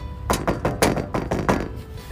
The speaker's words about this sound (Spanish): y tocó la puerta.